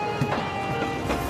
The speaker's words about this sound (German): Hörst du das Ding? Diese Bahn beschleunigt völlig geräuschlos. Das Einzige, was du hörst, ist das immer schneller werdende Getriebe und die Reibung der großen Stahlringe.